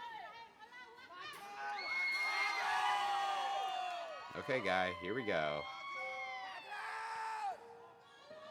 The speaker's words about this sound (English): It's really weird that there there's so much audience noise, right? because there's like yeah. zero audience noise in like American television.